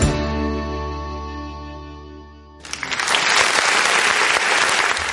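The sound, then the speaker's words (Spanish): A sustained musical chord rings out and fades, then a burst of loud, dense applause from a crowd takes over and continues steadily to the end. “Te ponemos los aplausos también, que no farten ¿eh?”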